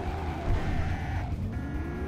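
A loud video game car engine roars as tires screech and skid while taking a turn and hitting another car, with rumbling road noise throughout a steady two-second stretch; no voices are heard.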